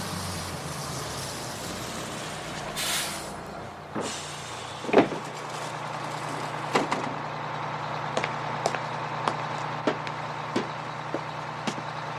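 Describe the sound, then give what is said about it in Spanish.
A bus rumbles low and steady, then a sharp pneumatic hiss and a heavy clunk as it stops in the street and its doors open, followed by scattered clicks and rattles. “¡Autobús! ¡Pare, por favor!”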